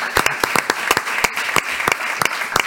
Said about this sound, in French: Merci beaucoup, Paul Chabrol. Applaudissements pour Paul Chabrol.